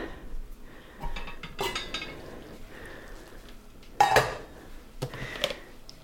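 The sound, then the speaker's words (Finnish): Dry quinoa grains rattle and hiss as they are poured into a pot of boiling water to cook, in a few noisy bursts with light clinks of cookware in between. No one speaks. “Ja nythän meillä kiehuu tuolla myös vesi. Eli kvinoat pannaan hautumaan tonne noin.”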